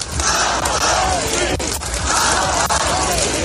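A large crowd shouts in unison, chanting the name Navalny over and over in a loud, continuous roar as the coffin with his body arrives, with brief dips between repetitions and a dense wash of voices throughout.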